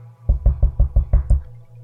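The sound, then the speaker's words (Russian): Six quick, evenly spaced knocks, like someone rapping on a door. They are fairly loud, with a low steady hum underneath and no talking. “он сейчас просто пойдет т т т т т и просто я сейчас услышу”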